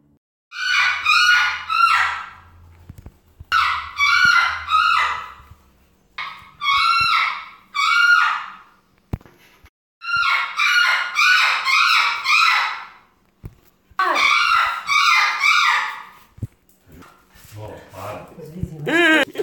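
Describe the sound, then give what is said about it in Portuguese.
A parrot in a cage in a backyard screeches loudly in a series of harsh, rapidly pulsing bursts, six or so shrill outbursts separated by brief pauses, with no one speaking. “No meu quintal, eu ouvi o papagaio da minha mãe gritar na gaiola.”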